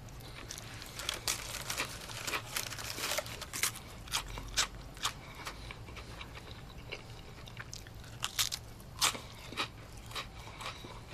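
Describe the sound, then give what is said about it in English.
Someone crunches crackers in a steady stream of sharp, crisp bites and crinkles, irregular and fairly loud, over a low steady hum with no talking. “Could you ease up on the crackers?”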